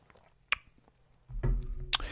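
Someone drinking orange juice: a wet mouth click, a pause, then a low gulping swallow followed by another sharp click. Quiet, with no talking.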